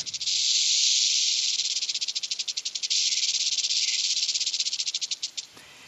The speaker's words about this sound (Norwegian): Ha-ha, det var det ikke. du, det var lyden av klapperslange.